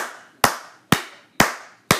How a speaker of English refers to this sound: I'm a I'm gonna give them a, a round of applause.